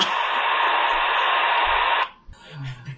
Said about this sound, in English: Now you see, back in my day, that sound meant the internet was coming. oh, that was great. It was it was funny because it was distinctive. It did it had those sequences to go through